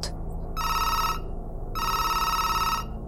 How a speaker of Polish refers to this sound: Głośny dźwięk telefonu budzi detektyw